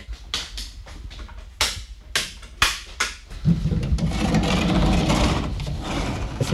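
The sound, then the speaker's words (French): The rostrum camera (banc titre) that belonged to Paul Grimaud, used to make Le Roi et l'Oiseau, running: a run of sharp mechanical clicks and knocks at an uneven pace, then a steady, loud motorized whirring that continues to the end. “voilà, le fameux banc titre.”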